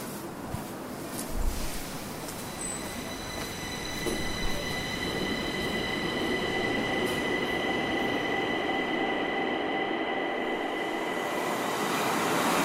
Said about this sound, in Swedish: Tågresan till station Rådmansgatan från Gamla stan tar bara några minuter. Det är förstås flera människor som känner igen Olof Palme på tåget.